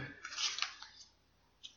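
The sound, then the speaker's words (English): Quiet papery rustling and flicking as a deck of playing cards is shuffled by hand without creasing them, a soft burst of riffling followed by a few isolated light card snaps, gentle. “Uh, I don't want to shuffle them and get them all creased and all that, so I'll shuffle them without creasing them.”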